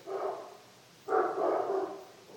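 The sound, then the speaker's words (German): Dogs bark in two rough bursts, a short one followed by a longer stretch after a brief pause. The barking sounds moderately loud, with no talking. “Oder die, die das Bellen von den Hunden kommt heraus aus der Stille und dann geht es zurück.”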